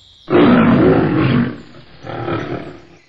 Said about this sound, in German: Löwe.